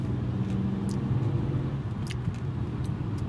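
A car engine rumbles steadily, a low, continuous drone as the driver downshifts into second gear to take a turn, with a few faint clicks and ticks above the engine noise.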